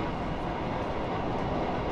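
Steady, loud rumble of a Rotterdam metro train running on rails between Coolhaven and Schiedam Centrum in March 2014, a continuous low roar with faint rhythmic clatter, with no voices.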